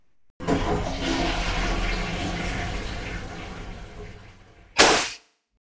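A toilet flushes in one loud, rushing burst of water that swirls steadily for several seconds, then ends with a sharp, hissy clunk as the tank valve shuts and the sound cuts off.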